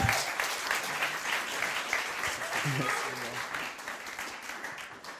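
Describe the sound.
Sustained audience applause, a dense crackle of many hands clapping at a steady, fairly loud level that tapers slightly toward the end, with a brief voice briefly audible underneath.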